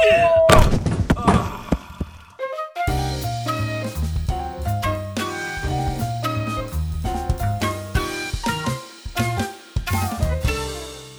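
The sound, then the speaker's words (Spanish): A blind man with a white cane thuds into a door with a couple of loud knocking bumps, then a bright tune with steady rhythm starts up and continues to the end. “No, espera, señor, no, esa puerta”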